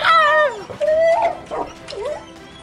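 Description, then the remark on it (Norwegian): A wolf gives a series of high, whining yelps. The first cry is long and falling in pitch, followed by several shorter, wavering yips. “It's a wolf.”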